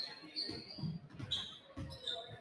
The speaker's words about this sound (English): He's trying to dribble.